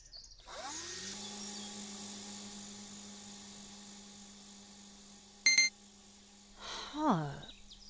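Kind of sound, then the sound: machine, drone flying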